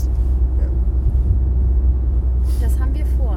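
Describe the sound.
Steady, deep rumble inside a car moving through Winterhude at the Klosterstern, a constant low drone filling the cabin at fairly loud level, with a faint voice briefly surfacing near the end.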